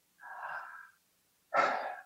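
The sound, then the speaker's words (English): A deliberate, audible human breath: a drawn-out airy inhale, a short pause, then a stronger, rushing exhale. No one speaks. “We're saying the name of our creator every single time we breathe.”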